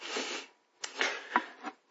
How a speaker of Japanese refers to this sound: はい。あちょっとあくびが出ちゃいました。